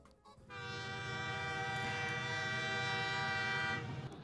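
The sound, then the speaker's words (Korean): A train rumbles along while a long, steady horn blast sounds for about three seconds, loud, then cuts off; no one speaks. “저는 어디론가 떠나는 기차 안에 앉아 있어요.”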